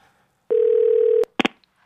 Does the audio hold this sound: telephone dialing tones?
yes